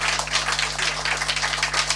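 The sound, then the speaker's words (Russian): An audience applauds in a steady, dense wash of many overlapping claps lasting the full two seconds, with a faint low electrical hum underneath and no voices; applause for a trio after a concert at a club. “Еще раз аплодисменты для трио”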